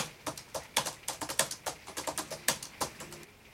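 Rapid, uneven clacking of keys as someone types on a clumsy, very old-fashioned laptop keyboard, about twenty distinct taps in a few seconds, fairly quiet, with no voices.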